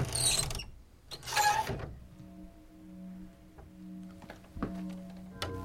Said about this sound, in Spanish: Aunque qué animal jode con la manija de una puerta, ahí sí, hmm, ni idea.